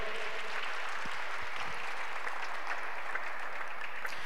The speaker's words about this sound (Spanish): Alguien puede aplaudir a Cristo, alguien puede aplaudir al Señor.